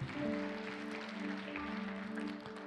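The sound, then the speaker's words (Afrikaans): A church audience claps steadily and continuously, a dense wash of applause, with sustained musical tones ringing underneath throughout. “Kom aan, nou moet jy groot hande klap. Jy kan fluit ook as jy wil.”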